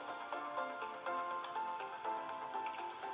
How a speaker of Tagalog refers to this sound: tunog ng nagpriprito o nagluluto.